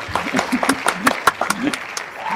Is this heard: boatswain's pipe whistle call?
no